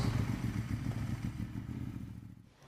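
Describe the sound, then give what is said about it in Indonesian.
A motorcycle engine idles as it warms up, a steady, throbbing low rumble with a fast rhythmic pulse that runs continuously and eases slightly at the end. “Suara besi yang dipukul, teng, teng, teng. Suara motor yang lagi dipanasin”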